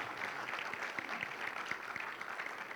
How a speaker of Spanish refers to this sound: ¿Cuánto le dan gracias a Dios por eso? ¿Por qué no le dan fuerte aplauso al Señor?